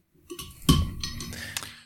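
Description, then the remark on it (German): Glasses of alcohol-free beer clink together in a toast in Garmisch-Partenkirchen: one bright clink that rings briefly, followed by a lighter tap a moment later, with no voices. “Prost Michi. Fürs alkoholfreie Bierchen.”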